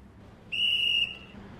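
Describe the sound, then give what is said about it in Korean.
A single sharp, steady whistle blast lasting about half a second, high-pitched and loud over a low background hum, then trailing off into quiet ambient noise; blown by a volunteer pedestrian-crossing safety guard when the traffic light turns yellow. “그게 노란불 되면 제가 호랑을 빨리 불죠.”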